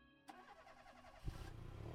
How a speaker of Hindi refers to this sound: उसने आधे घंटे में गाड़ी स्टार्ट करवा दी